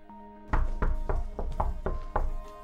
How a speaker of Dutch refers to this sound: kloppen ze op mijn deur.